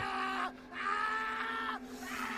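A man screams in long, strained bursts, three drawn-out cries with brief breaks between them, loud and close with no other talking.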